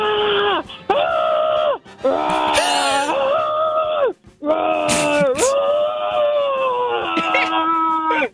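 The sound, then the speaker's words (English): Someone imitates excited bear growls, playing a Chicago Bears player conveying excitement about winning the Super Bowl: loud roaring vocal bursts with swooping pitch, several in quick succession separated by brief breaths. “You're a Chicago Bears player who can only communicate in bear growls.”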